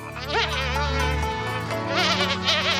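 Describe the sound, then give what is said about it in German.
A fly buzzes steadily overhead, its drone wavering in pitch as it circles, fairly loud and continuous throughout with no voices. “Eine Fliege schwirrte hoch über ihren Köpfen.”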